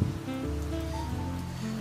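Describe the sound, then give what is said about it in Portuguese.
Steady rain hisses evenly throughout, a constant wash of falling drops at moderate volume, with soft sustained musical tones drifting underneath and no one speaking. “Você, bastante molhado, se seca ali no cantinho, pede um pano para secar onde você molhou, e a chuva começa a diminuir.”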